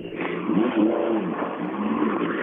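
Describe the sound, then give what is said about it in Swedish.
A rally car with the registration plate reading Plombo, driven by David Lindström, roars steadily as it arrives at the finish of a rally, its engine pitch climbing and dipping with revs over a gritty, continuous rumble; no one speaks. “Och rullar de lite snabbare än som är normalt då kommer ett jäkla damm.”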